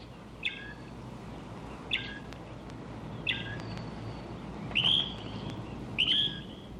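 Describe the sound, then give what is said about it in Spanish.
A Mexican mockingbird (senzontle) sings five short, bright phrases spaced about a second apart, the later ones longer and more varied, over a steady low outdoor hiss. “Es el senzontle, el pájaro mexicano de las muchas variadas voces.”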